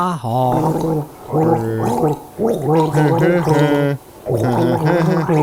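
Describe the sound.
Someone gargles a tune, the bubbling voice rising and falling in distinct melodic phrases separated by short breaths, loud and continuous with no speech.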